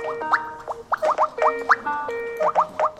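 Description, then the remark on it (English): Many phones on speaker in an office room in Greece crowded with Syrian refugees play Skype app tones at once, a dense, overlapping jumble of rising electronic bloops and steady beeping tones repeating irregularly, fairly loud, with no talking. “That's what the Skype app sounds like when a room full of people have it on speakerphone.”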